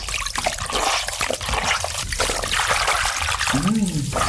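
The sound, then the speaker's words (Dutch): Steady warm water trickles and splashes into a filled bath, a continuous wash of liquid sound, with a brief voice rising near the end. “Is het water eh, warm genoeg?”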